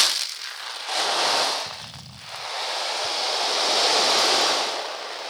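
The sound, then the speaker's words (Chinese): A soft, muffled rushing swell of mung beans rolling inside a handmade wave drum, played on its muffled side that is sealed with cardboard, imitates distant waves on a sandy west-coast shore. It surges, dips briefly, then builds into a long, steady hiss with no talking. “这这边是比较闷的，嗯，这这个可能就是比较西西岸的海浪， 远方的海 浪，因为西西岸都是沙沙子 哦，闷一些，”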